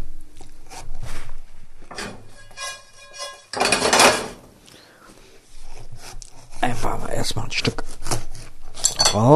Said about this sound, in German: So, die Melone, die schneide ich mir wieder. Eine, ich habe wie gesagt wieder Wassermelone, ist einfach Zeit. Ich habe eine große, von daher